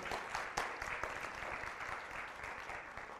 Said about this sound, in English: Well, brothers and sisters, we're here. Let's give a hand clap of offering to the Lord.